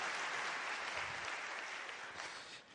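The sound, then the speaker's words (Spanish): Sustained audience applause welcoming first-time guests, a dense steady wash of many hands clapping at a strong, even level that eases off slightly toward the end. “También un aplauso para ustedes, bienvenidos, qué bueno que están acá.”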